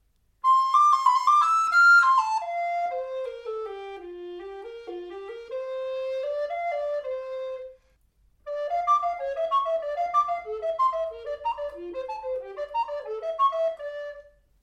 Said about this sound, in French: Vous entendez Cette fois, les aigus sont très faciles et très fins. Et c'est la même flûte qu'avant, j'ai pas changé de flûte. Les graves sont un peu moins sonores, mais ils restent acceptables. Mais l'ensemble pourrait être un peu plus équilibré.